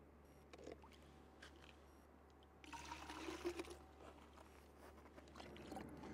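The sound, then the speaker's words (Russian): Puddle water trickles through an Axios GT Gran Turismo graphene filter, quiet and uneven at first, then swells into a steadier, louder flow partway through with a faint low hum underneath; no one speaks. “покажем вам, какой может быть вода из самых грязных луж после того, как ее пропустить через графеновый фильтр.”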